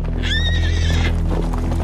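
A horse whinnies loudly, a wavering high neigh lasting under a second, while hooves clip-clop steadily underneath against a low, constant rumble.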